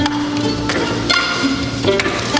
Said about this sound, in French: Il s'agit du triple concerto pour ping-pong, percussion, violon et orchestre composé par Andy Akio. Non, non, non, non, tu rêves pas. Sur la scène, il y a un orchestre symphonique et une table de ping-pong sur laquelle jouent deux solistes.